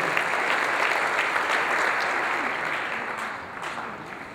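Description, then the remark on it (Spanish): An audience applauds the Lord after a prayer at a Spanish-language church service, a dense wash of many hands clapping that holds fairly loud throughout and eases off slightly toward the end, with no one speaking. “Y usted déle un aplauso al Señor y ocupe su lugar.”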